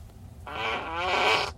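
A single wet, sputtering fart lasting about a second, buzzy and rippling with a moist, bubbly texture, moderately loud and heard on its own with no talking.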